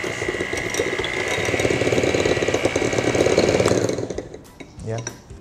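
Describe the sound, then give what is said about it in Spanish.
An electric mixer mixing a batter of egg and cheese whirs steadily with a loud, buzzing motor drone for nearly four seconds, then cuts off, followed by a few light knocks and clatter. “Ahora sí, con la batidora vamos a mezclar.”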